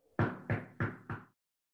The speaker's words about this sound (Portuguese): Imagine, imagine, imagine que você está batendo na porta de uma pessoa.